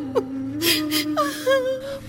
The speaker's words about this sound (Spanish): Y usted al primer probleminha, se pone a llorar como una Magdalena.